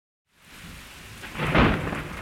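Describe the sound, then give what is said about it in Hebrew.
Steady rain hisses, then a rumble of thunder swells and peaks partway through, rolling on beneath the downpour, from a winter storm of the kind that hits Israel, known as a Cyprus low. A single loud storm moment with no voices. “למעשה, הסערות האלה שפוגעות בישראל בחורף נקראות שקע קפריסאי.”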